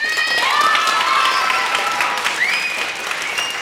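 An audience at Klæbu lower secondary school claps in a steady, dense roar of applause to show which song they want to hear, staying loud throughout, with a few high whistles and cheers rising above it and no talking.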